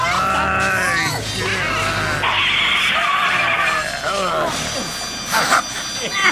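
Tires screech loudly as a car skids to a stop, a long, shrill squeal with wavering, sliding pitches lasting several seconds.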